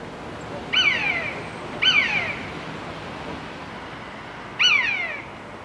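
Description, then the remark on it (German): Three drawn-out, descending mewing calls of a common buzzard, each a plaintive downward-sliding whistle, spaced irregularly over a steady background hiss, fairly clear. “Ja, genau so klingt das Miauen des Mäusebussards.”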